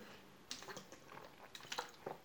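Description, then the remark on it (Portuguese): Someone sips water from a bottle: a quiet run of soft wet clicks, gulps and swallows spread across a couple of seconds, with no talking. “Já bebi aqui, já fechei minha garrafa.”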